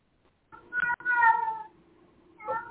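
cat meowing repeatedly

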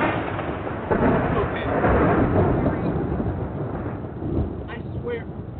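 thunder rumbling

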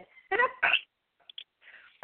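sneeze

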